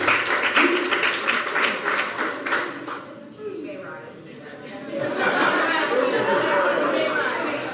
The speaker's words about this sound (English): Come on, let's give them a big clap and a shout as they head on out. Youth, youth.